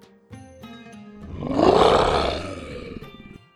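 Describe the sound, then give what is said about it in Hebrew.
A person's voice imitates a scary lion roar for a show about the lion who loved strawberries: one long, rough growl that swells to a loud peak midway, then fades out. It fills the whole moment, with no talking. “למשל, אני יכול לעשות הצגה על האריה שאהב תות, ולהישמע כמו אריה מפחיד.”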